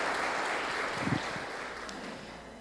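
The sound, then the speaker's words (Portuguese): A crowd claps steadily, the dense patter of many hands filling the whole stretch and slowly fading a little toward the end. “Um aplauso para eles, tá bom?”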